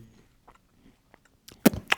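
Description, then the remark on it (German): Crunchy chewing of crisp chocolate-coated flakes made of crushed crispbread: a few soft bites early on, then louder crackling crunches near the end, with no talking. “der Mund voller Schokoladenflocken hat.”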